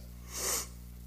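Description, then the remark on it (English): A single soft, airy breath lasting about a quarter of a second, taken with eyes closed during a guided breathing exercise, rising and fading over a steady low electrical hum, with no talking. “We're going to focus on our breathing. I just invite you to close your eyes and just take some breaths.”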